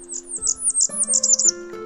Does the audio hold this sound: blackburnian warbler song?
yes